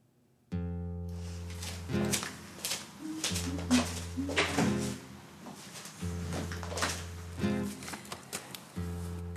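Drawers and cupboard doors bang and slide in a steady run of knocks and rattles as someone searches for a passport, over a low sustained musical drone.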